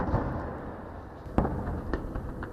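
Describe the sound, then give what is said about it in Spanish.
Muffled explosions of bombs falling in Gaza during Israeli attacks thud over a constant low rumble, with one sharp boom standing out and a few weaker blasts following, all fairly quiet with no voices. “Hasta ese momento el sonido allí ha sido una vez más el de las bombas.”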